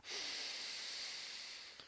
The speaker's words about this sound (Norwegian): det er egentlig bare å starte med at du skal puste ut all lufta du har. Altså man puster først inn, og så skal du puste ut til du ikke har mer luft å puste ut, og så skal du trykke ut det siste. Bare sånn mm.